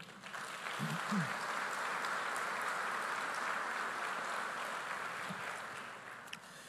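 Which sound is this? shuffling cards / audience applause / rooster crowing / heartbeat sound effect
audience applause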